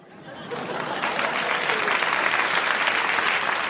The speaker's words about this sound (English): And the applause there tells you Carr had scored.